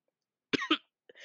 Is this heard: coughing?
yes